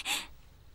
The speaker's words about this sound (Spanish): Siéntate, hija. Recupera tu respiración.